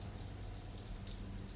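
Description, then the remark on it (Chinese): Cold water from a showerhead runs in a steady, even hiss of spray with no pauses, fairly quiet throughout, with a faint low hum beneath it and no voices. “他打开莲蓬头，水哗的一声出来了。”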